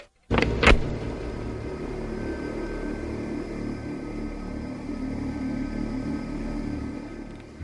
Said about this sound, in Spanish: Ah, parecía que todos los autos del mundo habían decidido circular esa mañana.